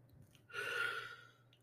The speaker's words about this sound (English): Excuse a moi on the yawns. That's the third one this episode.